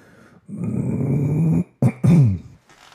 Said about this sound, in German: Ähm, und habe dann ähm, bewusst drüber nachgedacht, wie ich mich räuspere und es, es klang so.